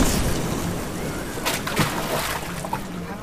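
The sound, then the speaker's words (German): Water splashes and sloshes as someone cannonballs into the Müggelsee lake, nearly capsizing the boat, with a couple of broad bursts of spray followed by continued churning and lapping. “Du bringst mit deiner Arschbombe ja fast das Boot zum Kentern.”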